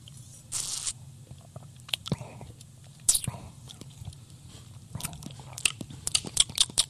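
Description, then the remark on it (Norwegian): Wet lip smacking from someone tasting wine from a large glass: a string of irregular sharp mouth clicks and small slurps, with breathy hissing in between and a low background rumble. “må smatte litt.”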